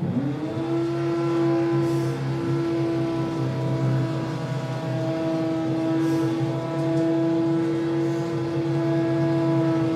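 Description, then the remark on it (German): A neighbour's power drill, drilling holes into the walls at 19:08 in the evening, spins up and runs with a steady, droning motor whine, holding one pitch for about ten seconds without pause. Nobody speaks. “19.08 Uhr ist es, abends, wo Menschen von der Arbeit kommen, auf der Couch liegen, ihren Feierabend genießen wollen oder einfach sich anhören möchten, wie der Nachbar Löcher in die Wände bohrt.”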